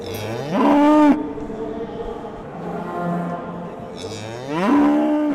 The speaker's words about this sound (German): Dazu Rinder, die unruhig werden, wenn ihr vierbeiniger Begleiter gerade dem Publikum in der Manege vorgeführt wird und dem Blick entschwindet.